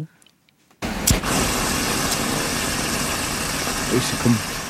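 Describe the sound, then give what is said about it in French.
An amplified, slowed-down sound-effect recording of a squirting cucumber fruit bursting when touched: after a brief silence, a sudden loud pop opens into a sustained, rumbling hiss that stays fairly steady to the end. “c'est, c'est amplifié et au ralenti. Donc dans la réalité, on le perçoit pas exactement mmh. comme ça.”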